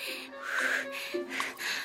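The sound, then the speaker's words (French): Quick, breathy out-of-breath panting, about four or five rapid huffs in a row with a slight voiced edge, like a voice acting winded as Lulu the turtle arrives at school running; no words spoken. “Ce matin, Lulu la tortue arrive tout essoufflée à l'école.”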